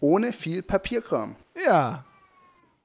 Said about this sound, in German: Sie hören vielleicht im Hintergrund, mein Sohn ruft nach mir.